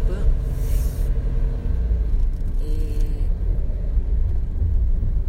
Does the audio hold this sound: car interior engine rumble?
yes